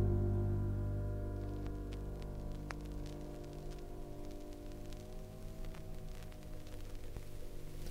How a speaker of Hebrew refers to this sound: המחט מקפצת על התקליט ומייצרת רעש סטטי עדין, עד שמישהו קם להפוך צד.